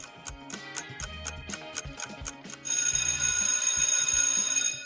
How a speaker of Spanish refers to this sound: Ya me sonó, ya la chicharra.